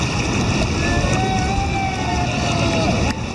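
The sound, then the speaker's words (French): A raft runs down rapids on the Nive river at Bidaraï, with a loud, steady roar of rushing whitewater filling the whole moment and faint wavering tones riding above the churning noise. “Généralement, une descente en rafting sur la Nive ressemble à cela.”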